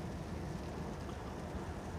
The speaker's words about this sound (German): Ja, Freunde, ich weiß nicht, ob man es hört, aber äh, ja, im Hintergrund, äh, oder was heißt im Hintergrund, es regnet draußen. Äh, für euch ist es quasi ein Hintergrundgeräusch.